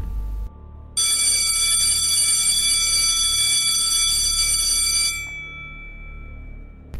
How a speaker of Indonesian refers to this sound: Bunyi lonceng sekolah gua yang lama dan memekakan telinga membuat suara Raden tenggelam.